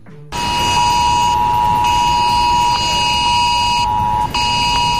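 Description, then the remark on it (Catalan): A mobile phone's emergency alert tone blares, loud and harsh, during an emergency alert test; the message says not to call 112, just accept. A steady buzzing tone sounds continuously for about five seconds, its upper layer briefly thinning twice. No one speaks. “Me ha empezado a sonar y lo he visto no llamar al 112, aceptar i ja està, ho he hecho.”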